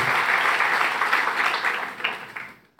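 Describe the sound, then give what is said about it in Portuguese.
An audience applauding for God during a sermon, dense sustained clapping from many hands that fills the space, then tapers off quickly and stops near the end. “É para ele, pode aplaudir.”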